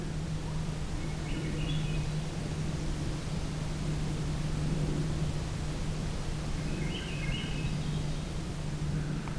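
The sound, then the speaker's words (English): Two short, faint flutey phrases of Swainson's thrush song, rising in pitch, sound a few seconds apart over a steady hiss of background noise and a low hum, with no one talking, on a June 2022 evening in a park, in a cleared section known as the old campsite. “It's the Swainson's thrush once again.”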